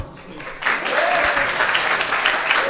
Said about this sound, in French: Et sa maman qui est là aussi. On peut l'applaudir aussi.